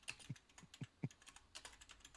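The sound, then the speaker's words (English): Quick, uneven clicking of keys on a computer keyboard, a dozen or so taps in a loose rhythm, fairly quiet, with no voices. “But yet, when I'm without looking, I can hit it and know where where it's what.”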